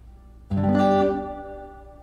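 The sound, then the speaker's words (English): A single plucked string note rings out with rich harmonics, then lingers and slowly fades with a reverberant tail. No voices are heard. “All right, here's reverb.”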